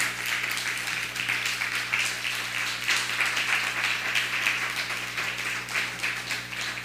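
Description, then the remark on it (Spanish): A crowd applauds for Colombia steadily for several seconds, many hands clapping in a dense, continuous patter at an even volume, with a low hum underneath and no one speaking. “Un fuerte aplauso a Colombia, vamos a darle un fuerte aplauso a Colombia.”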